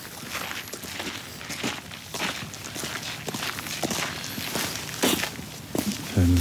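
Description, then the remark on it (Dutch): Steady footsteps walk at an even pace from Marchandplein into the park pavilion, each step a crisp tap, with a faint hum of surroundings and a brief tonal sound near the end. “Zullen we naar binnen lopen? We gaan naar binnen.”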